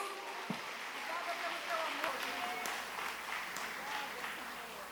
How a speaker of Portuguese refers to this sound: Você pode dar um grande aplauso para o nosso Senhor Jesus.